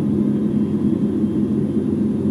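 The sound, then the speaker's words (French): A steady, low mechanical hum and whir of ventilation fans and machinery running inside the International Space Station, from a 12-hour ambient recording, constant and unbroken with no voices. “Ah, ça, par exemple, c'est 12 heures de son d'ambiance de la Station Spatiale Internationale.”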